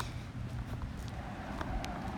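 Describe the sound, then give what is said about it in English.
Cars rush past on a road, a steady low rumbling roar with faint scuffs and ticks on top, no one talking. “These are cars zooming by.”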